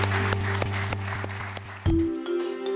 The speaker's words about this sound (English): so, thank you all so much for coming, and please give our wonderful speakers another round of applause.